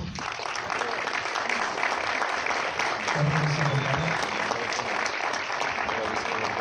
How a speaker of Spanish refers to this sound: Y creo que ese aplauso debería ser más fuerte porque también me gustaría que fuera un aplauso para los miembros de la banda que no están aquí esta noche, pero que sin duda pasaron a la historia.